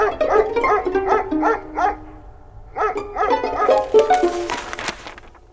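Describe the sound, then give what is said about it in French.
Several dogs bark in quick, overlapping bursts, loud, with a short pause before a second flurry of yaps and barks, during an attempted burglary at a railway train chief's home. No one speaks. “Des chiens ayant aboyé, ils avaient pris la fuite sans travailler.”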